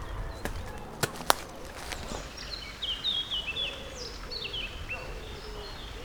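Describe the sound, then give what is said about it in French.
Birds chirp in a shaded forest in quick runs of short, bright, slightly falling notes against a soft outdoor hush, after a few sharp clicks like snapping twigs near the start. “Je suis à l'ombre et il y a enfin des oiseaux.”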